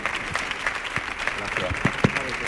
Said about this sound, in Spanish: Bienvenidos. Fuerte el aplauso, ahora sí, eh, ahora sí, ahora sí.